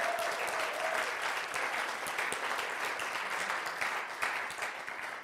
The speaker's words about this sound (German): Ähm, übrigens, gebt doch mal euren Technikteam Applaus. Ehrt den mal.